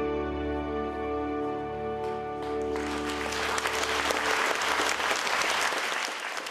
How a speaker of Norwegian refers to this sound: De neier pent for stående applaus før teppet går ned.